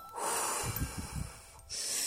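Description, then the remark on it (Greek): A deep breath drawn in with a hissing rush of air, followed by a shorter, breathy exhale; a single breathing cycle with no speech. “Τώρα πάρε πέντε βαθιές ανάσες και στην εκπνοή μέτρα μου.”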